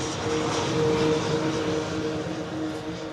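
A steady, loud engine drone from a propeller airplane on a runway in Taiwan at night fills the scene, with a sustained low hum and a tonal whine holding throughout, and no one speaking.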